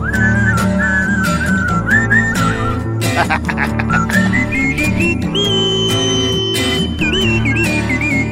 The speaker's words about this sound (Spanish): Sí, me salió chiflito. Nomás la subidita esa no alcanzaba.